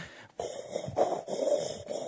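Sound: imitated heavy wheezing breathing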